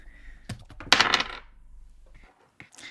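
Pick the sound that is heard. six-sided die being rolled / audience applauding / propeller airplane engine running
six-sided die being rolled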